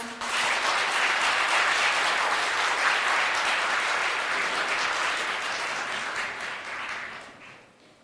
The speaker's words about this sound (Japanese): 発表してくださった4人の方に今一度大きな拍手をお願いします。